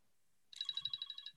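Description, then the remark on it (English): An electronic timer alarm starts abruptly and beeps in a rapid, steady pulse of high, bright tones, fairly loud, with no talking. “the timer literally just, I don't know, could you guys hear it there? But as I said, 2 0, the timer went off.”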